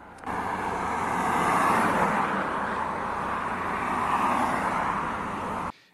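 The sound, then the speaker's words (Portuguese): A loud, steady rushing roar of a luxury car speeding at 201 km/h on a highway in Maringá, Paraná, Brazil, constant for several seconds with only slight swells, and no voices. “Em Maringá, no Paraná, o motorista deste carro de luxo foi flagrado a 201 km por hora.”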